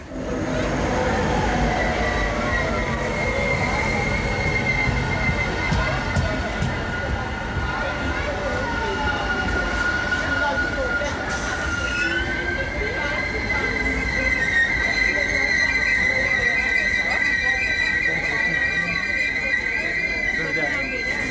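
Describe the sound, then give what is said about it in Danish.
A train rolls steadily into a station on track 4, its wheels squealing with a sustained high metallic screech over a continuous low rumble, loud throughout, with people talking. “Nu kommer toget ind på spor 4 her.”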